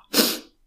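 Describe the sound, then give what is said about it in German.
A single sharp, loud sneeze that the person tried to suppress, bursting out suddenly and fading within half a second, with no talking. “ja, Entschuldigung, ich war gerade so davon abgelenkt, dass ich meinen Niesen unterdrücken wollte, was ja grandios funktioniert hat, wie wir gehört haben.”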